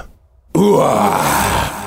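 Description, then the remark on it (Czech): After a brief silence, a loud roar from the creature Kvadratus bursts in, a deep, rough, groaning bellow that holds steady for over a second before easing slightly at the end. “Zařval kvadratus a dvakrát mocně dupnul, až se skály drolily a jiskry létaly vzduchem.”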